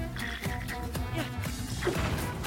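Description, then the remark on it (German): A video game explosion bursts out as an object is blown up, amid a busy stream of crashing, thudding game noise, fairly loud, with a voice talking over it. “So, dann wird das Ding hier mal hochgejagt.”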